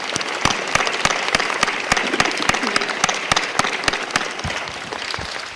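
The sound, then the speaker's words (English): An audience applauds its panelists and itself at an event: a steady, dense wash of many hands clapping, with a few sharper, louder claps standing out in an irregular rhythm, sustained at a fairly loud, even level throughout. “So please give a huge round of applause, not, all, not only to our panelists, but to you folks as well.”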